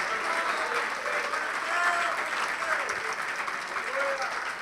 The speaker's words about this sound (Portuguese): E se você crê, dá uma salva de palmas para Ele e diga: Senhor, assim seja feito.